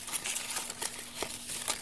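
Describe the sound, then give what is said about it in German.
Leaves rustle in a series of soft, crackling bursts as someone hides behind the leaves in a museum exhibition, with a faint steady hum underneath and no voices. “Ich glaube, ich verstecke mich einfach wieder hier hinter den Blättern und warte auf die nächsten Besucher.”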